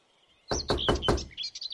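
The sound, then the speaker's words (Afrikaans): Four firm, evenly spaced, loud knocks as a girl knocks on the wooden door of a small cottage in a forest, while birds chirp and tweet softly in the background. “Sy klop aan die deur van die huisie.”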